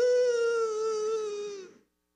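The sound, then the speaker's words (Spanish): A single drawn-out, high-pitched wail from one voice imitating crying and sobbing, held steady for nearly two seconds and dipping slightly at the end. It is loud and stands alone. “Déjenme que estoy llorando.”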